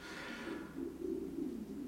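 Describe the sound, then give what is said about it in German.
A low, gurgling stomach rumble from the speaker's own stomach rolls on for about two seconds, wavering and bubbling in pitch, faint, with no talking over it. “Ui, und das war mein Magen jetzt.”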